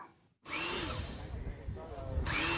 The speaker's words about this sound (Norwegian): Det blir sveisa og bora iherdig ved stranda i Rødby havn for tida. Neste år blir dette byggeplass for 3000 arbeidere som skal stå for en 18 km lang tunnel mellom Danmark og Tyskland, der en i dag må ta ferje.